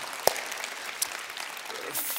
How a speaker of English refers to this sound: Hey, would you applaud a whole bunch of people that just raised their hand?